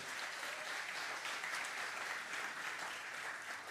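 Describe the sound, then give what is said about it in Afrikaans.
A church audience claps together to welcome the online audience, dense, steady applause, many hands making a continuous bright crackle at an even loudness for the whole stretch, with no voices standing out. “Kerkfamilie, kan ek ook vra met 'n hande klap?”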